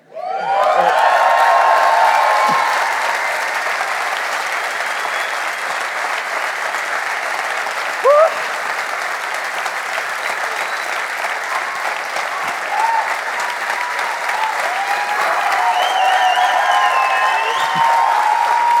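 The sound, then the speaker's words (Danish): A crowd applauds steadily for nearly twenty seconds, a dense wash of clapping with scattered cheers and a brief whoop rising above it midway. “Stop med at øhm. klappe, jeg vil sige noget.”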